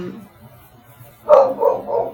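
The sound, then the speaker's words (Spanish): A dog barks a few times after a quiet stretch, a sharp first bark followed by two or three quicker, slightly softer ones. “Ay, se escuchan ladridos, una disculpa.”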